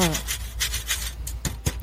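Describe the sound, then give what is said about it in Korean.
Ice being scraped and dug out at a ski resort: a run of about five harsh, hissy scraping strokes in a steady rhythm over a low constant hum, with a brief murmur of voice at the start. “어, 뭔가 얼음 파내는 소리 같은데.”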